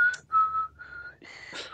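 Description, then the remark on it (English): A person whistles a short string of random, tuneless notes, clear, with the pitch sliding around before a breathier, airier final stretch. “that was not the X Files theme. It was just some random whistles.”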